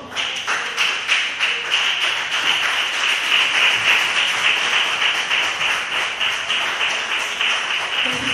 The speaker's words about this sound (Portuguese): Pode se levantar, por favor, aplauda o nome do Senhor.